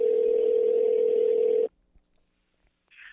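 A steady electronic ringback tone hums for under two seconds over a phone line, falls silent, then starts again at the end as the call goes unanswered.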